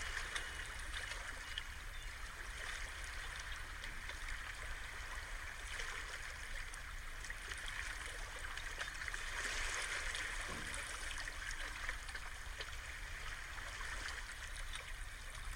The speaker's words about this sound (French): On sent notre respiration qui s'accorde avec le mouvement léger des vagues. l'eau qui part sur la plage et qui revient à la mer, comme une danse infinie.